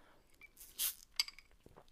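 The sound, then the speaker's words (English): A short, hissy slurp of sipping through a straw, followed by a sharp clink and a few faint ticking clicks. Quiet overall, with no one talking. “That was a horrible sipping sound on the straw.”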